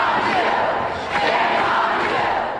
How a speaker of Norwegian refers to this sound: Og så roper de 'shame on you' eh, utover her.